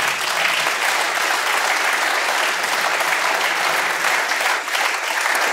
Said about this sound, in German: Ganz ich finde es ich richtig cool, dass Sie alle klatschen.